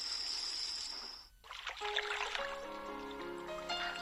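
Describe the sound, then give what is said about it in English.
A soft splash as a fish is pushed from a boat into the sea, followed by gentle water trickling and dribbling, quiet, with sustained musical tones rising underneath as the water settles. “She pushes the fish into the water.”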